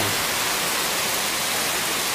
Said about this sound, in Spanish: Que sea algo profético. Que sea algo profético esto que está cayendo. Que sea algo profético. La lluvia cae.